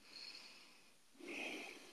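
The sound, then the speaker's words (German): Soft, airy, slow breathing out through the nose with no talking: a gentle hiss that fades, then a second, fuller, long exhale that swells and holds steady. “wirklich sich die Zeit zu nehmen, auszuatmen und das wirklich lang. Das geht auch durch die Nase, das sieht gar keiner, man steht einfach da.”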